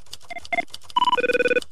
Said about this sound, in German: Äh, Moment. Telefon.